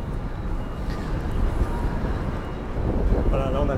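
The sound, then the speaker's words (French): Strong wind roars and buffets the microphone on a high rooftop beside FM radio antennas, in a continuous low rumble, swelling slightly in gusts, with a faint voice briefly audible near the end. “Wow! Ça souffle. Hein. Ouais, ça souffle, ouais.”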